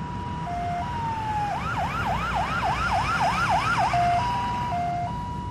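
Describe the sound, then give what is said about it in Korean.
An ambulance called by police, taking an injured person to hospital, sounds its siren loudly, starting with a two-tone hi-lo wail, breaking into a fast rising yelp for a few seconds, then returning to the alternating two-tone pattern. “규는 경찰이 부른 앰뷸런스에 실려 병원으로 갔다.”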